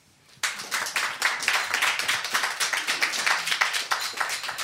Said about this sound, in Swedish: En applåd för dem.